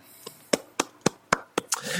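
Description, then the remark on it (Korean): Several sharp hand claps of applause land in a steady, brisk rhythm, the first one faint and the rest crisp, with a little rising background noise at the end. “박수를 보냅니다, 박수를.”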